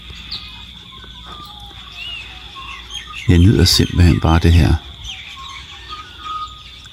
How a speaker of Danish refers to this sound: baggrundslydtapet af fugle, både her fra Australien, men også en gang imellem, så hører jeg lidt, hvis jeg skulle have lidt hjemmevæg, så kører jeg lidt solsorten. Den er introduceret her i Australien, så den kommer en gang imellem.